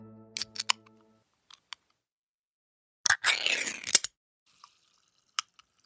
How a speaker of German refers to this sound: Haben Sie es erkannt? Das war das Geräusch einer Getränkedose beim Öffnen. Naja, der Getränkedosenhersteller Ardag aus Bonn, der wollte dieses Geräusch jetzt als sogenanntes Hörzeichen rechtlich schützen lassen.